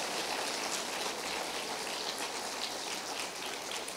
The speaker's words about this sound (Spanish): Dale otro aplauso a ese regalo que Dios nos dio, Jesús, el Hijo de Dios.